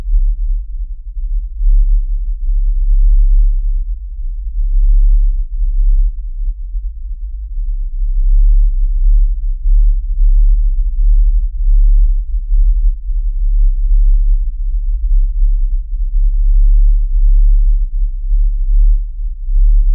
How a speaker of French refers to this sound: Voici une captation de ce vrombissement de Windsor. Attention, son très grave, très doux, au bord de l'inaudible.